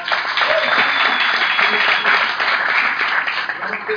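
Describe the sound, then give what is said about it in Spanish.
Steady audience applause at an evening event, given for the audience themselves, a dense wash of many hands clapping at once, loud and sustained for the full few seconds with no clear individual claps standing out and no voices on top. “Y principalmente un aplauso para ustedes, por pues.”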